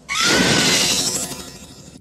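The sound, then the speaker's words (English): A harsh, electronic, keyboard-like scream sound effect from a movie, heard after a character yells "Night Rider": a loud, bright wail with a slightly rising tone over a noisy, crashing texture. It holds for about two seconds, easing off a little at the end. “There's this weird sound after he yells Nightrider.”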